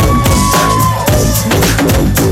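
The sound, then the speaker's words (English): A loud, continuous wash of TV show audience noise with shrill screams and cheering as guest Joey Fatone is introduced, dense and sustained throughout, with bursts of higher-pitched yelling rising out of the roar. “Oh, they're screaming.”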